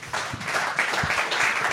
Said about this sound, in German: Ja, damit möchte ich den Vortrag erstmal schließen und wir können dann ins Gespräch übergehen. Sie dürfen applaudieren.